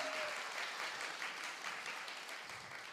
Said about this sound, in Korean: 여러분들 우리 너무 멋있는 우리 이랑주 대표님에게 박수 한번 주세요. 감사합니다. 감사합니다.